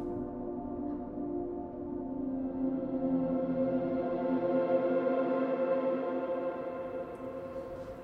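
A 1966 pop-rock hit plays steadily at moderate volume, with dense, slightly distorted guitar-heavy music and a sustained, full sound throughout, no talking over it.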